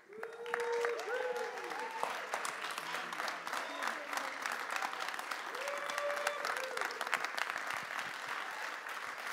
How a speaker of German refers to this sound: Ja, und deswegen lasst uns ihn, wie es üblich ist in der K21, mit einem großen, warmen Applaus hier begrüßen.